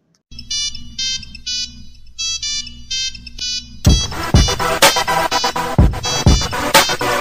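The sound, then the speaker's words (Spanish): The classic Nokia mobile ringtone plays its bright, beeping melody in short repeating phrases for a few seconds, then a louder music track with punchy drums kicks in and takes over. “Una marca es realmente legendaria cuando al nombrarla o con tan solo ver su logo o escuchar su sonido, más de una generación es capaz de reconocerla. Este es el caso que hoy nos ocupa, pues hoy hablaremos sobre Nokia”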